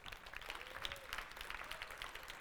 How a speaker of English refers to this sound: Come on, let's give the Lord a clap off.